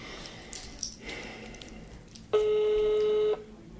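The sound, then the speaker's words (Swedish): A phone call being placed to politician Irene Hagström: a short stretch of faint fumbling, then a single loud, steady one-second ringing tone on the line, with no one speaking. “Jag ringer upp Irene Hagström för att fråga hur hon ser på sina båda roller.”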